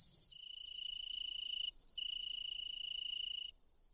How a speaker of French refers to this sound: Prière donc de ne pas confondre ces grillons des bois avec ces cigales européennes et ces grillons d'Italie.